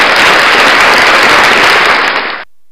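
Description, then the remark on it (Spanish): A loud burst of applause, many hands clapping in a dense, steady wash for about two and a half seconds before stopping abruptly. No voices are heard. “Así es eh, que por eso, un aplauso.”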